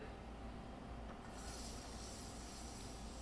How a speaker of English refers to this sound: If you can't, hopefully you can hear that season that sizzling. It sure smells good, that's for sure.